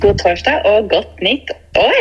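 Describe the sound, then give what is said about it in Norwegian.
A voice speaks by phone from Cape Verde over a thin, band-limited connection with poor telephone-line quality, muffled lows and clipped highs, plus a steady low hum running underneath the talk. “Så beklager litt dårlig lyd fra min side, men vi håper dere tåler det denne gangen.”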